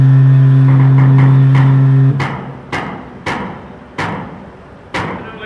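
A bus's engine drones loudly, then cuts to a series of five sharp metallic clanks at uneven intervals as it rolls up a ferry loading ramp, the first vehicle to be loaded onto the ship.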